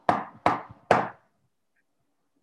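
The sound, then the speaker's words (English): Three firm, evenly spaced knocks on a wooden door at night, fairly loud, each with a short hollow ring before silence follows. “There was a knock on the door”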